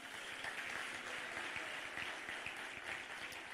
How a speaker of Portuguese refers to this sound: Pode aplaudir o Senhor, amém?